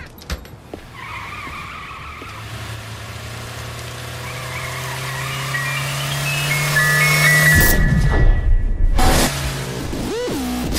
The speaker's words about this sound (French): Alors on va écouter tout de suite un extrait de la bande-annonce.